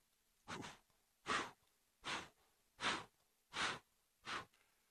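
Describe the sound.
A voice imitates a baby's heartbeat in the womb with six steady, breathy whooshing pulses, evenly spaced a bit under a second apart, fairly loud with no talking.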